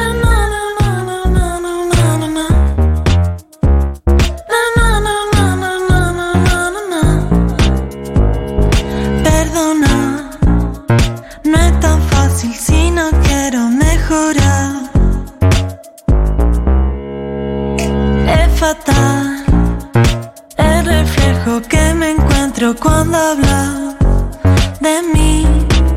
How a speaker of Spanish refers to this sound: Estamos picando algunas canciones de este disco nuevo